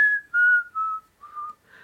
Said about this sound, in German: Pfeifen darf ich auch nicht mehr.